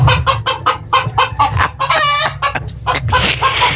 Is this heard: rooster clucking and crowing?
yes